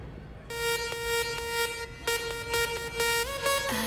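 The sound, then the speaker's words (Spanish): Metro trains enter and leave a station amid people coming and going: a loud, steady electric whine with bright overtones starts suddenly, broken by a few sharp clicks, then slides down in pitch at the end. “y esa es la gracia, a lo largo del programa el trasiego de gente yendo y viniendo, y los metros, los vagones que van, van entrando en esta estación, entrando y saliendo.”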